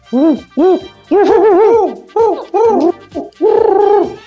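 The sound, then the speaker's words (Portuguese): A person imitates an owl, voicing a quick series of about seven loud hoots with rising and falling, warbling pitch, some short and some drawn out. “Que isso? É uma coruja! É uma coruja!”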